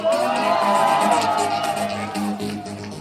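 A crowd applauds and cheers loudly for about three seconds, a dense wash of clapping with whoops and shouts rising over it before easing slightly at the end.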